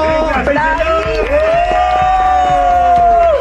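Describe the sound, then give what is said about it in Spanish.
A burst of cheering and whooping welcoming visitors to a studio, with one long, high, sustained vocal whoop over a dense crowd-like wash and scattered sharp claps, loud throughout. “Un aplauso.”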